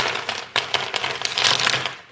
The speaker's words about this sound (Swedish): Äh, nu ska vi göra, då gör vi bättre ljudeffekter. Vi häller ut våra drygt 300 tärningar på bordet.